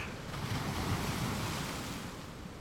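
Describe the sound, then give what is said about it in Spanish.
Ocean waves wash and break against the shore in a steady, broad roar, with a gusty wind rumble mixed in. No voices are heard. “y empieza a crear olas y no te da miedo, solamente observas ese movimiento de olas, del mar, el sonido, el tronido, el estruendo.”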